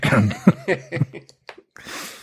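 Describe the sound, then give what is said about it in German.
Someone clears their throat with a few rough, voiced rasps, then a couple of short clicks and a breathy exhale, because something is caught in their throat. No speech accompanies the sounds. “oh, Entschuldigung, ich habe irgendwas im Hals.”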